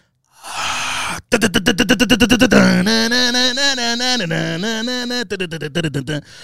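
A voice imitates a heavy metal song intro, first a rapid run of about a dozen staccato syllables, then a loud, sustained sung riff that steps up and down in pitch before more choppy bursts.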